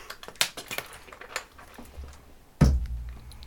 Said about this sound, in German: sorry, ich habe äh, hab Wasser getrunken.